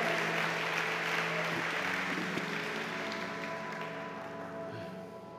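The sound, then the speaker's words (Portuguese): A church audience applauds the Lord God, a steady dense wash of many hands clapping that stays loud throughout, with faint steady tones held underneath and no speech over it. “Você pode dar um aplauso ao Senhor Deus.”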